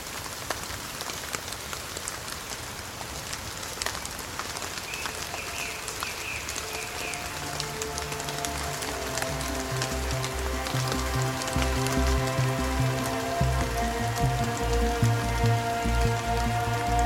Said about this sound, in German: Heute regnet es